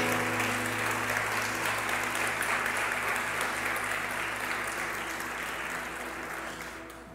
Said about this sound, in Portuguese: Quantos creem que hoje o Senhor está ativando áreas de convicção na sua vida? Dê um aplauso a Ele em nome de Jesus.